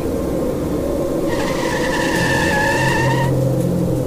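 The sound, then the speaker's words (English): A car losing control on a snowy road skids with a high, wavering tire squeal lasting about two seconds, rising out of a steady, loud engine and road rumble that continues throughout. No one speaks. “On the road, I saw a car losing control in the snow, heading towards a mother and her young daughter.”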